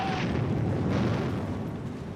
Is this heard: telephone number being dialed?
no